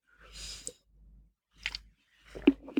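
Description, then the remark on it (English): Quiet sipping of a hot drink, an alternative to tea that is popular in South America: a breathy slurp, a second shorter draw, then soft wet mouth clicks and swallows at the end, with no talking. “So another sip here of a beverage, but it is an alternative to tea, you could say.”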